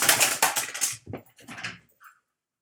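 Cats scamper and run around in the morning, a rapid flurry of thumps and rattling clatter, then a shorter second burst and a faint brief squeak before it goes quiet.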